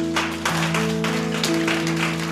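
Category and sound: crowd, applause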